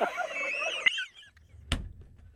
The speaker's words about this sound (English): I didn't know turkeys. The guy's sitting there on his steps, and the talking turkeys are talking to him.